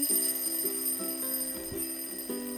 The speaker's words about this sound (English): It was now 3 o'clock and the final bell rang, signifying the end of the school day.